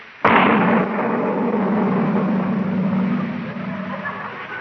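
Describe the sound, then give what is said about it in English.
A sudden loud blast from a cannon loaded with a giant firecracker, fired as a salute, goes off with a booming roar that hangs in the air and slowly fades over several seconds. “What in the world did you put in that cannon? It was just sort of a giant firecracker, Miss Brooks.”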